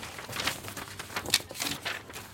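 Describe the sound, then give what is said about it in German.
A sheet of paper is pulled out in an office with soft, crinkly rustling in several quick bursts, fairly quiet, with no one talking. “holt ein Blatt Papier hervor.”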